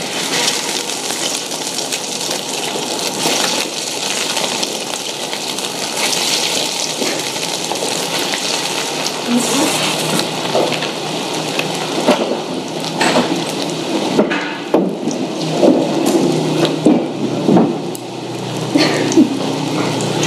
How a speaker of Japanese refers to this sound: 衣を入れてみてくださいはい音がしたらコロッケを揚げていきましょう入れます